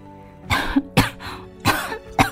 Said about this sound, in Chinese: 那一阵熟悉的咳嗽声，声音也是月罗不错。